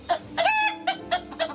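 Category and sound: bird, rooster crowing and clucking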